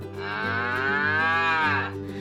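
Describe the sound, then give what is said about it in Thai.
A single long moo from a cow tied to a tree, loud, holding steady for nearly two seconds before cutting off, with no other voices around it. “พ่อก็เดินทางมาถึง แล้วถามวัวว่า เป็นไงบ้างล่ะเจ้าวัว กินอิ่มดีไหม เจ้าวัวก็ตอบเหมือนเดิมว่าลูกชายสุดที่รักของคุณนี่แย่พอ ๆกับพี่ของเขาเลยนะ”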